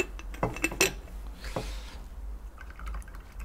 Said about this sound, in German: Soll ich ganz kurz erst einmal einschenken?